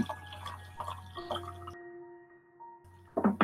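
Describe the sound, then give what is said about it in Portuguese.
Liquid sounds, drips and small sloshes of water in a water bottle with a few handling knocks, ending in a louder burst of movement as the water bottle is picked up, over a low steady hum. “Beba água, vou pegar minha água aqui também.”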